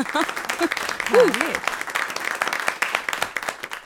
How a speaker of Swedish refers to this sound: En applåd på det också.